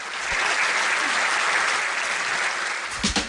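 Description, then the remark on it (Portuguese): Applause at the close of the Eldorado Expresso radio programme: a crowd applauds steadily, a dense wash of many hands clapping at once, sustained and fairly loud from start to finish with no voices over it. “Ó, oh, aplausos, inclusive.”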